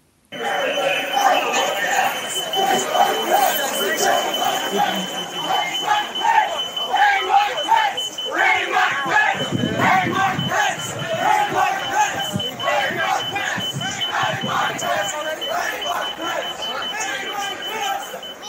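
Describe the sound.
A large, angry crowd of Trump supporters storming the US Capitol on January 6 chants and shouts "Hang Mike Pence" in unison, a dense roar of many voices with rhythmic swells, while a high alarm-like tone whines steadily underneath.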